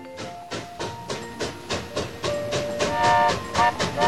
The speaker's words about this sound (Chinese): 火车轮子撞击轨道的响声传来了。火车离开了城市，滚进了乡村。